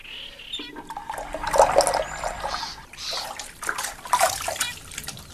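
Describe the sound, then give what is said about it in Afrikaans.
Running water splashes steadily from a tap as someone washes their face at a sink, a continuous gurgling stream that swells and eases in small surges, with no voices over it. “Dit gaan kraan of stort. Hm. Ek was met my gesig by die sinkdam.”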